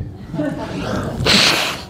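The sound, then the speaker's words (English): A single short, forceful nose blow, a breathy burst lasting about half a second after a stretch of low, muffled background noise, by a preacher during a church service in Jefferson, Iowa. “I need to blow my nose.”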